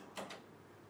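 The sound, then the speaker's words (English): A door opens or closes, making two quick clicking knocks in close succession, followed by quiet. “Just the door.”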